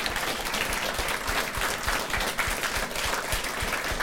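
An audience at Litteraturhuset breaks into steady applause for politician Bjørnar Moxnes after he answered questions, a dense wash of many hands clapping at an even loudness for the full stretch, with no voices rising above it.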